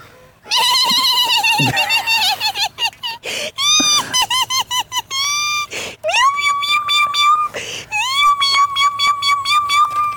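Cats meowing insistently, a rapid run of loud, high, wavering meows overlapping one another with only brief gaps, continuing without pause for the whole stretch.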